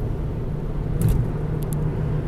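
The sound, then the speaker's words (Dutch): Steady low rumble of a car's engine and road noise from inside the vehicle, with a couple of faint high clicks or squeaks partway through. No one speaks. “Hopelijk was het geluid niet te storend van de auto.”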